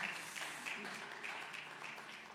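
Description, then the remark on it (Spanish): An audience at a bilingual Spanish-English church service claps steadily, giving a strong hand of praise, a dense wash of many hands applauding together throughout, soft, with a faint murmur of voices underneath. “Let's give a strong hand praise, brothers.”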